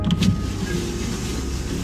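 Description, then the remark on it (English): An electric car window hums steadily as it rolls down, a low motor whine running continuously, with a brief clunk at the start and no voices. “I rolled down the window and he fumbled and barely spit out the news.”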